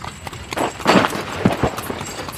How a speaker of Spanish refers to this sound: A principios del mes pasado, dijo él, yendo por una calle, pasó un tilbury a toda carrera que casi me arrojó al suelo.